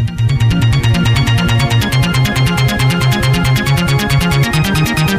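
A loud electronic dance track in a retro club style pumps along with a steady driving beat, a bouncing bassline and bright synth layers, with no voices over it.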